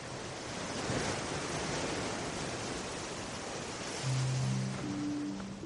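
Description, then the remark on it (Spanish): Sea waves surge and crash forcefully against the steep volcanic cliff coast of El Golfo in a steady, broad, loud roar of surf, with wind rushing through it and a low droning hum rising near the end. No one speaks. “El mar golpea con fuerza contra la acantilada costa volcánica del Golfo.”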